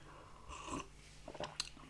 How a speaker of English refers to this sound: Sip from my tea there.